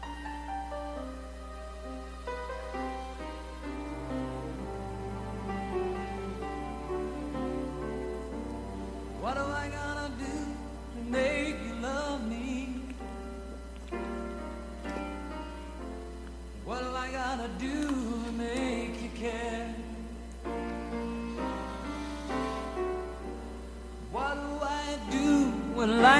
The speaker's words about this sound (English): I want you to hear this song. Some of you will recognize it. And if you can put it on the board, it's got the lyrics. It really is good.